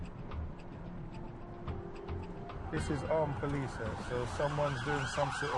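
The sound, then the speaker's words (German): A police siren from a passing police car carrying armed officers in Croydon, South London, bursts in about halfway through, loud, its wailing tone sweeping up and down over street noise while a voice speaks beneath it. “Schauen Sie, in dem Wagen sitzen bewaffnete Polizisten. Da muss schon wieder irgendetwas los sein, was Ernstes.”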